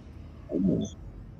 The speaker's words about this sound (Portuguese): Conforme você mexe no tijolo, não é difícil empurrar ele. E você escuta o cleft e uma porta se abre pela parede de pedra, bem aqui.